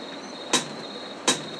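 Two bright, crisp hi-hat hits from an original, unedited drum sample, evenly spaced about three-quarters of a second apart, each with a brief sizzle, over a steady hissy noise bed that lingers between and after the strikes.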